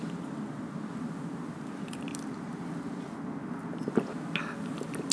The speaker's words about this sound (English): drink my little water because my voice be getting so dry like talking